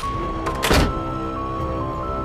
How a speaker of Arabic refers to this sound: اول ما دخلنا جوه البيت الباب اتقفل لوحده زي افلام الرعب